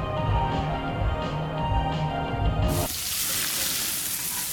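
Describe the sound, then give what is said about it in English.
A burst of musical tones gives way to a loud, steady hiss of a juicy, cheesy burger sizzling on a hot grill, crackling continuously for the last couple of seconds. “We know that juicy, cheesy, grilled to perfection burger sounds amazing, but it does sound like something is missing.”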